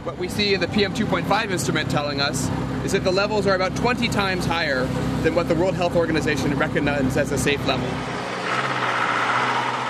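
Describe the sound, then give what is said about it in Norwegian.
Busy city traffic on the streets of Delhi rumbles continuously, heard from an open three-wheeled motorized auto-rickshaw amid other rickshaws, cars and buses; engines drone while a person talks over the noise almost the whole time; the roar drops off sharply near the end. “Forurensningen fra de andre rickshawane som konkurrerer om plassen med biler og busser av alle slag, går rett inn i Joshua Aptays apparater”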